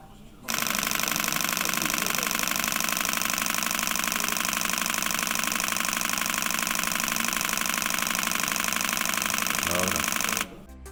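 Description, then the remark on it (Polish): A Nikon D6 full-frame DSLR camera shutter fires in a continuous rapid burst at 14 frames per second for about ten seconds, a dense, even machine-gun chatter of clicks that starts and stops abruptly, loud, with no talking. “Matryca jest ta sama co w Nikonie D5, to znaczy 20,8 megapiksela i 14 klatek na sekundę. E, posłuchajcie, jak to działa.”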